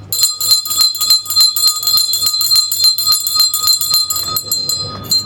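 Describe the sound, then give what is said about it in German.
A bright metallic church clock bell strikes the hour in quick, steady repeated strokes, loud, its overtones hanging between hits before the ringing thins into a low rumble at the end. “Hört ihr Leute und lasst euch sagen, es hat nun ein Uhr geschlagen.”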